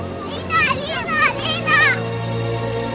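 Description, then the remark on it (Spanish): Several children run toward a doctor shouting her name, calling out excitedly in high-pitched bursts over about two seconds, with overlapping rising and falling cries above a steady low hum. “La doctora ve a unos niños que corren gritando su nombre.”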